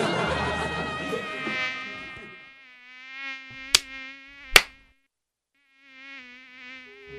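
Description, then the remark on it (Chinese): A thin, high-pitched mosquito whine drones steadily, rising and fading as it moves, with a couple of sharp clicks partway through and a short pause before the buzzing returns. No one speaks. “其实你就是喊着那些蚊子快来吸我吧，我又香又甜又嫩啊。”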